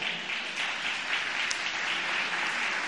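An audience claps steadily, a dense wash of many hands forming a continuous crackling applause that holds at an even, moderate loudness throughout, with no voices standing out.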